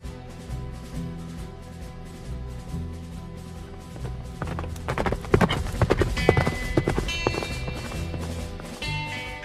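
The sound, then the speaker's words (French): The hooves of four starving horses and a lame mare clip-clop in a steady, uneven rhythm, growing louder and busier midway as several animals pass, over a low rumbling background with faint tonal sounds. “La tâche ne s'avère pas trop difficile, considérant que les quatre membres de la famille Kelly voyage avec quatre chevaux affamés et une jument boiteuse.”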